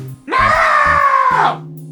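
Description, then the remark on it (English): An adult voice imitates a young girl's shrill, sustained scream, loud, lasting just over a second before cutting off, with low background hum underneath. “It's like she waited for me to count down and then she would just scream at the top of her head that she did not want to do this.”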